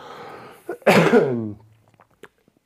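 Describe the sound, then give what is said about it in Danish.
A single harsh cough bursts out loudly after a small catch of breath, trailing off into a voiced rasp, followed by near silence with a few faint clicks. “Ej, jeg skal altså hoste igen.”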